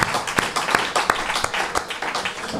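An audience breaks into applause, a steady wash of many hands clapping with sharp individual claps popping out of the dense, crackling roar, holding at an even loudness throughout.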